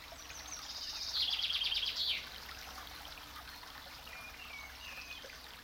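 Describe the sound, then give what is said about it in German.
A babbling brook trickles steadily through flowering meadows lined with blossoming trees and shrubs, while birds sing, with a bright burst of rapid chirping early on and softer calls scattered through the rest. “Ein schmaler, zugewachsener Pfad führt durch blumige Wiesen zum Bach.”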